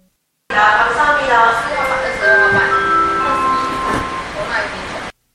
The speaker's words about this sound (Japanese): で、次が、うん、えっ、ー、と、セントレアの、うん、えっ、ー、と、アナウンスの前にあるチャイムなんですけど、はいはい、聞いてみてください。